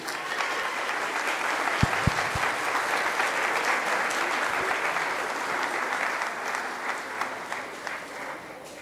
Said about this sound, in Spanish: Muy bien, un aplauso fuerte que se oiga a la participación de los chicos.